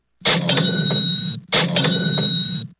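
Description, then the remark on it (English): A cash register sound effect plays twice in quick succession, each a loud ka-ching with a bright ringing chime over a clattering drawer, with no voices. “cheap catch register sound effect means it's time for Florida Cash homebuyers cashing in”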